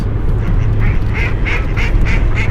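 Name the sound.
duck quacking sound effect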